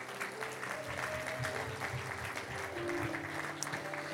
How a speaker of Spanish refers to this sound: Mira qué bonitas se ven. Un aplauso a todas las princesitas.